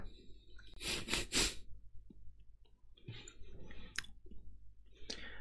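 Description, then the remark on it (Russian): Wet, smacking mouth noises, like someone chewing loudly with their mouth open, with a dense burst of clicks early on and scattered smacks after. A host is chewing during a live broadcast. “а ты считаешь дозволительным чавкать в прямом эфире?”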